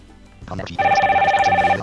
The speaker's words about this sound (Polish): O, ktoś tak. nam dzwoni. Ktoś nam dzwoni.